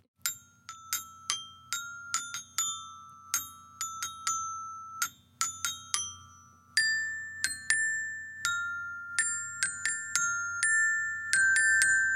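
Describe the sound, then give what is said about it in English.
A glockenspiel plays a simple melody of bright, ringing struck notes, an attempt at Carol of the Bells, each with a sharp attack and a long shimmering decay, played at a steady, unhurried pace with no talking. “Well, if you have a Glockenspiel, get it out.”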